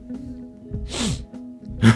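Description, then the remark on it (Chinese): Heavy, congested breathing through a blocked nose: a longer rushing breath followed by a short, sharper and louder snort, with no talking. “然后它有个功能是去掉呼吸声”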